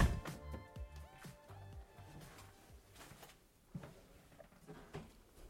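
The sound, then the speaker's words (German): An apartment door is opened with clicks and a soft creak, followed by light footsteps and small knocks as someone walks into the apartment; quiet, no one speaking. “Und zwar öffne ich die Tür jetzt und gehe rein.”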